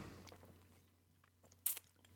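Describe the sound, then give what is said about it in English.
A single quick sip of beer, a short wet slurp, heard against a faint low hum with no one talking. “He was mid uh, mid. This sip.”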